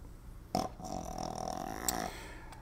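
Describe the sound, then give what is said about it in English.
A bulldog lets out one long, rough snore, a low rattling, grunting breath lasting about a second and a half, with no talking over it. “That is a dog snoring”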